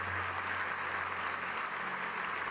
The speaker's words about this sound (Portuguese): Quantos podem dizer amém e dar um aplauso ao Senhor por esta verdade?